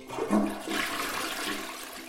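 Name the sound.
toilet flushing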